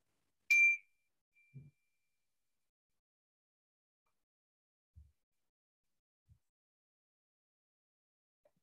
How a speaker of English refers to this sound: Then in a moment, I'm going to ring the meditation bell. You're going to let me know you're ready just by opening your eyes.